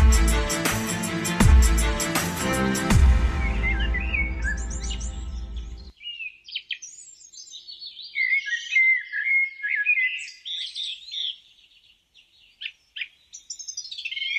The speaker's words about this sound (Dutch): Wat is er rustgevender dan te ontwaken met vogelgeluiden? Bijna niets, denken steeds meer mensen.